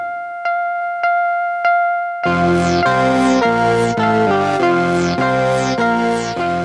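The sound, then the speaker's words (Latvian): The opening signal tune of Radio Liberty's Latvian-language broadcasts from Munich, used from 1975: three evenly spaced electronic pips, then a loud, bright fanfare-like melody with repeated descending flourishes, played alone. “Ar šādu signālu 1975. gadā sākās no Minhenes raidošā radio brīvība latviešu raidījumi.”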